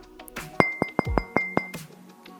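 Knuckles knock on glass about six times in a quick, fairly even series. Each sharp rap leaves a faint, bright ringing tone, and nobody speaks.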